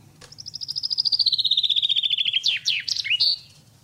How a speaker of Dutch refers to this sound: Ja, Oké, ik heb net in het stuk met, met Henk heb je al een vink, een vink prachtig horen zingen. Ik heb nog een, nog een mooi geluid, Paul. Moet je eens even meeluisteren.